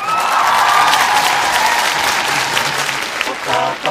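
Sustained applause from a sizable audience fills the whole stretch, a dense, steady patter of many clapping hands at close range with a faint murmur of crowd voices beneath.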